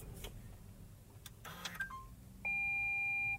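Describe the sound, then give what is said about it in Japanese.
Inside a parked car, a few mechanical clicks and a brief rustle as the seatbelt is unfastened give way to a loud, steady electronic reminder tone lasting about a second. The tone is the car's ETC card reminder, warning that the card is still inserted, as the engine is switched off. “ETC カードが残っていますという具合に、えー、エンジンを停止しました”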